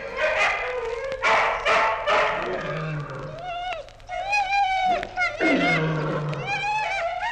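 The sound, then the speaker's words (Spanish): About a hundred hungry dogs at night, in the dark, gnaw fresh meat, growling and snarling at once, with teeth gnawing, tongues lapping, and sharp yelps and whines overlapping in a loud, continuous tangle. “De noche, en la oscuridad, de cien perros a la vez se oía el roer de los dientes, el gruñido de gusto, el ruido de las lenguas.”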